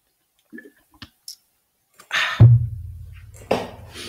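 Someone drinking water: a few light clicks and taps, then a steady gurgling, sloshing sound lasting nearly two seconds, with a louder gulp near the end. No one speaks.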